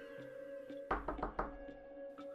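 Four quick, solid knocks on the wooden door of the local fortune teller in Red Sands, fairly loud, in a brisk uneven burst over a steady low hum, with no one speaking.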